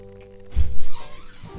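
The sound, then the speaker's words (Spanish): A cat moving about: a dull low thump followed by a short stretch of scuffling and rustling, with no one speaking. “Mira, la vida con, la con la vida con gatos es un tema.”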